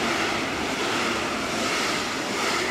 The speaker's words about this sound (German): Und mag, man muss ja auch sagen, oh, jetzt fährt ein Zug durch. Der RE4.